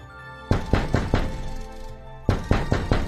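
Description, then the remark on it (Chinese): Someone knocks on a door in two bursts of four firm, hollow raps, with a short pause between the groups. The knocks are loud and rhythmic, and no one speaks. In the story, Renard the fox is knocking at the door of the wolf Isengrim's home. “一阵敲门声响起来， 啊，刚刚美美的饱餐一顿，正想眯一会儿呢，有人串门，可真不是时候啊。”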